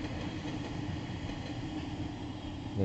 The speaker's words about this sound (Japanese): 3分の電車が通り過ぎていっております。